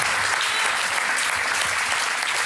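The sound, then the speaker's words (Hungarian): Steady, dense applause from an audience at a Christian worship service, given for young musicians, a continuous wash of many hands clapping at an even loudness throughout, with no distinct voices standing out. “És ezeknek a fiatal zenészeknek is egy nagy tapsot.”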